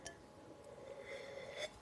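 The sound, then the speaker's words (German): Wine glasses clink together in a toast, leaving a soft, sustained ring, followed by a second faint clink near the end. Quiet, with no talking. “Ein, ein, ein Prost darauf. Der letzte Schluck Wein für heute ja.”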